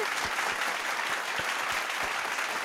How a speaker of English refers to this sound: So, thanks everyone for listening. You're still clapping. Yep. yep. cheering us on.